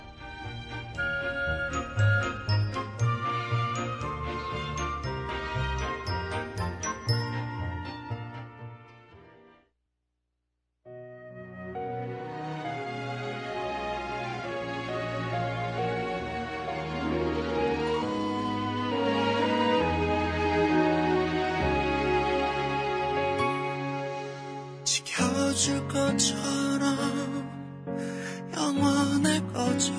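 A pop song plays loudly with dense harmonic instrumentation and a strong low end, breaking into a brief silence about ten seconds in before the music resumes and swells.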